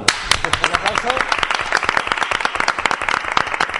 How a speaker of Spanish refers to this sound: Pues un aplauso.